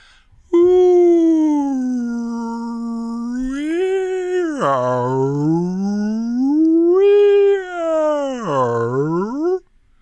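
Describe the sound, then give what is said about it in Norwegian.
A person imitates whale song with a long, loud vocal moan that swoops slowly up and down in pitch in two big glides, lasting about nine seconds with no other talking. “Det er to hvaler som snakker med hverandre. Så sier den ene hvalen”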